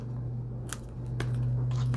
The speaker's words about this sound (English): and I think this is the uh, the stamp I had, so we'll just stamp something on there because it's here.